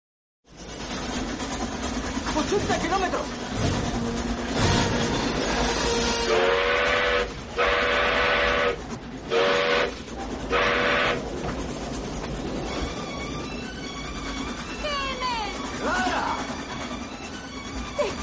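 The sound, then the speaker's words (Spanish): A steam train whistle blows several loud, drawn-out blasts in quick succession over a steady rumbling of the moving train, with voices around it. “Pues Doc hace oídos sordos, pero claro, a Clara se le, se le ocurre el recurso de tocar la bocina, ¿no?”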